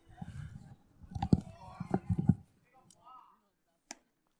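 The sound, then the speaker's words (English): During a baseball game, a ball smacks into a catcher's mitt in the bullpen as someone warms up, with several sharp, leathery pops, some close together and one alone near the end, over faint indistinct murmuring in the background. “I do believe Mifflin has someone up in the bullpen right now, so I can hear the thud of a catcher's mitt.”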